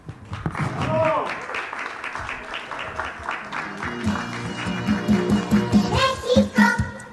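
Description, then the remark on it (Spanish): Sustained crowd applause for a singer after his song, a dense patter of many hands clapping at moderate loudness, mixed with voices and cheering that rise and swell toward the end. “Fuerte los aplausos para”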